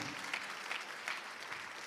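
An audience applauds the Lord steadily, a dense wash of many hands clapping at an even, moderate level with no voices standing out.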